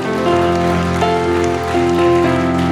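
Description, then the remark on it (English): A church audience applauds God in a steady, dense patter of clapping that runs throughout, layered over sustained keyboard chords that shift now and then. No one speaks. “If you lifted your hand, come on, let's give God applause.”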